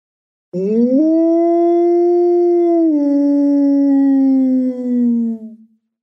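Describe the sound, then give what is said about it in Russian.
A person imitates a polar wolf's howl: one long, loud call that rises at the start, holds steady for several seconds, then slowly slides down and fades out. “И полярный волк.”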